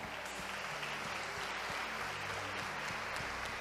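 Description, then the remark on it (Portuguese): An audience standing and applauding the Lord, a dense wash of many hands clapping at an even level for several seconds, with no voices standing out over it. “Se você acredita nisso, fique em pé e aplauda o Senhor, não vai faltar nada.”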